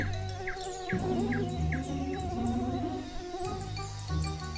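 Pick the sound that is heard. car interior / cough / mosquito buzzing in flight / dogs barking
mosquito buzzing in flight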